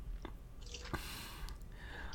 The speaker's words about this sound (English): As I sip on my sprite declaratively like I'm a badass or something.